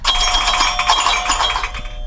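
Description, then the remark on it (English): A pinball-table alarm tone from a phone, full of bright chiming, bell-like pings and jangling arcade-style sounds, loud and continuous for a couple of seconds with no talking. “How could you sleep through a pinball table?”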